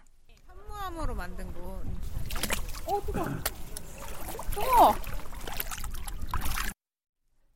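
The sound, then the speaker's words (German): Water sloshes and splashes as someone steps into a warm-water pool made of basalt, with a brief spoken exclamation at the start and steady churning water continuing for several seconds. “… steigt zunächst in ein Becken mit warmem Wasser”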